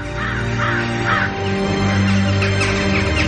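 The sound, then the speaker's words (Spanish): A flock of crows caws in quick, harsh bursts as it flies out past a window, several calls overlapping over a few seconds, fairly loud, with a steady low drone underneath. “Bandadas de cuervos salen volando de Invernalia.”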